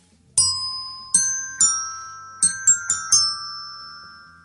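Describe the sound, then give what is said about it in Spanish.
A short El Lobo Christmas nougat TV advert jingle played on bright chiming bells: seven ringing notes, a few spaced and then a quicker cluster, each tone sustaining and overlapping into a lingering shimmer. No voices. “muy, bien, muy bien, el lobo.”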